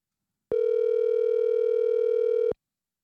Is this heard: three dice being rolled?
no